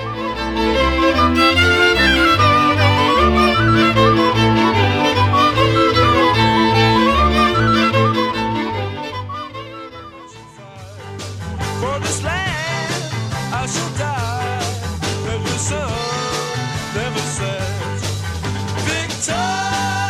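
A rock song plays loud and up close with a full band and steady driving beat, briefly dipping around the midpoint before the arrangement shifts and carries on strongly.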